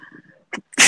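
A single loud, sharp sneeze bursts out, preceded by a quick inhaling catch of breath after a brief low murmur.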